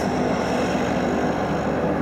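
A small red twin-engine propeller plane roars loudly as it takes off from the dirt runway of Nerlerit Inat (Constable Point) airfield on Greenland's east coast, heading back to Iceland, a steady, dense engine drone with a humming tonal edge filling the whole moment, no voices.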